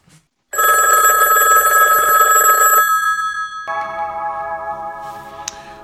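A loud telephone ring, a steady bright tone that lasts a few seconds and then drops to a softer, lower tone as an answering machine picks up before a message.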